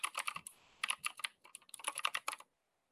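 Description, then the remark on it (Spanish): Rapid typing on the speaker's previous mechanical keyboard, a dense clatter of crisp key strikes in quick bursts with a couple of short pauses, then silence at the end. No one speaks. “Voy a pasar a otro momento ASMR de mi teclado anterior.”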